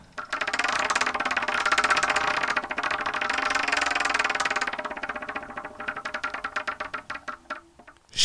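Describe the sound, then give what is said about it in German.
The "Wheel of Torture" prize wheel spins to pick who goes first, with a dense, rapid clatter of clicks that gradually slows, the ticks spreading apart and growing distinct before it comes to rest. No one speaks. “du darfst eigentlich auch schon ähm, mit dem Wheel of Torture starten.”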